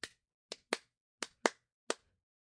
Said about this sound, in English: Claps.